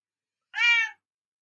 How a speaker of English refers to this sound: sorry about my cat